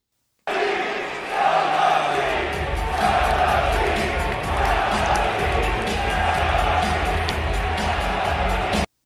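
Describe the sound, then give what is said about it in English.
A large arena crowd of Knicks fans at the Garden roars steadily with a low, sustained wash of voices, jeering and booing loudly for several seconds without letup after their team was blown out by the Memphis Grizzlies. “You just heard the vocal displeasure of Knicks fans at the Garden a couple weeks ago after getting blown out by the Memphis Grizzlies at the end of the contest.”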